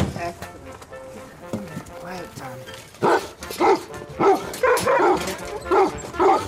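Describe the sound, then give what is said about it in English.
Weimaraner dogs barking loudly on a walk just past Clontarf bus station garage, heading towards the wooden bridge onto the island: a quick run of about six or seven sharp barks after a few seconds of quieter whining and rustling. “I have Weimaraner dogs.”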